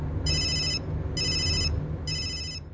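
A telephone rings in three evenly spaced bursts of bright, warbling electronic tones over a low, steady background rumble, with no one speaking.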